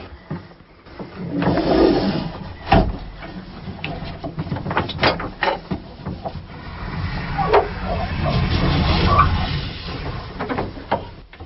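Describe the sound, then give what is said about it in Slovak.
An electric railcar on the Tatra Railway having its spring-loaded pantograph (current collector) raised against the overhead trolley wire, bringing 5500 V to power it up: a steady mechanical whir and rumble punctuated by several sharp clunks and metallic knocks, with no one speaking. “Zberáš, že prúdu sme práve zodvihli.”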